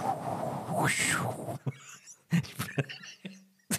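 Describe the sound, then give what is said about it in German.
A breathy voice imitates a howling whirlwind, a rushing whoosh that swells and falls for about a second and a half. Brief bits of speech and small noises follow. “Ich kann auch Wirbelsturm, kann ich.”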